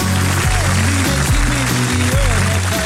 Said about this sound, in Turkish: Alkışlar bana gelsin.